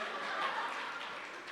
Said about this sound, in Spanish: Un fuerte aplauso para mi amigo Caín.